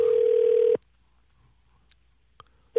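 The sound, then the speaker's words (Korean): A loud, steady, low-pitched telephone dial tone holds for under a second, cuts off into near silence with a couple of faint clicks, then starts again right at the end, as a phone call is placed. “아, 정말 펀팅 원하신다면, 예, 전화 한번 걸어보도록 하겠습니다.”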